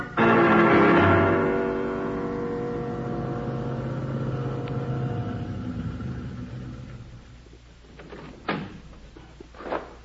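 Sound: car engine driving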